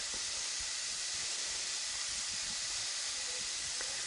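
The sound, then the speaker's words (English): Ground hamburger meat sizzles steadily in a pan as bits are pulled off and dropped in to be crumbled for a sauce, a constant bright hiss with faint scattered pops and crackles throughout, no voices. “You can hear mine starting to cook.”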